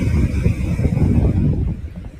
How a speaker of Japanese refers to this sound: あ、葉山じゃないんですけど、江ノ島の近くまで来てまして、波音聞こえてるかな